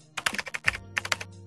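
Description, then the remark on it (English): Quick computer keyboard typing while searching Google for film composer Brian Tyler: about a dozen sharp clicky keystrokes in two short bursts separated by a brief pause, moderately loud, with no voices. “Let me Google him.”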